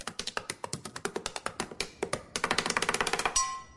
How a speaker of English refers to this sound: Right up there with the woman who taps her pen like she's doing a drum solo at a sold out arena.